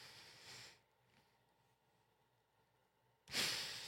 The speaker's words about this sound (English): Uh, they come in uh, Halloween flavors of orange, white, and dark brown. Sniff test.